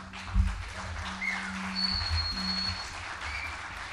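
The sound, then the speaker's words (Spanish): An audience claps steadily for the first guitarist for about four seconds, a dense, even patter of many hands, with a low sustained hum and a brief high whistle-like tone riding over the applause. “un gran aplauso para el maestro”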